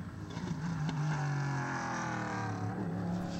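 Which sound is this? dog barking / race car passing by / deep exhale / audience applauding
race car passing by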